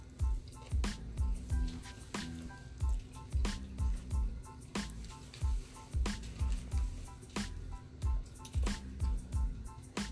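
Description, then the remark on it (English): Wet chewing of a bitten sandwich, steady squishy mouth sounds repeating every half second or so, with sharper crunchy clicks mixed in and no talking. “Take a, bite, take a bite into that bad boy.”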